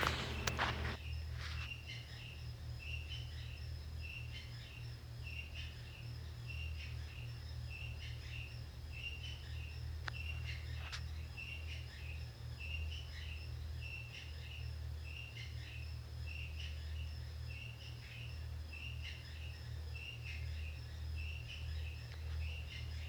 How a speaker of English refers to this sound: She lives a few houses away, but she rents the house next to us. It's kind of across from us, catty corner. But it's close enough that you can hear that dryer going, man.